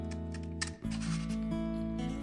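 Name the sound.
scissors cutting paper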